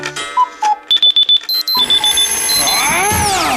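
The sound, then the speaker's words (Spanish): An alarm clock rings loudly in quick electronic beeps, then gives way to a bright chiming jingle with sweeping tones, with no voices. “Ups, di adiós a las alarmas.”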